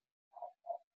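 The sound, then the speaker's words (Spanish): Two quick, muffled, faint dog barks, one right after the other, with silence around them. “disculpen los perros si los escuchan.”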